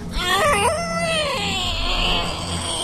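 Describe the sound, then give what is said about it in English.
A voice imitates a baby screaming: one loud, continuous, wavering wail with rising and falling pitch that lasts nearly three seconds, alone. “Probably oh, the baby scream.”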